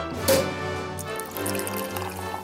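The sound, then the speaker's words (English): Rosé wine pours steadily into a glass, a close, continuous liquid stream with a faint rising ring as the glass fills, and no one speaking. “We're drinking rosé.”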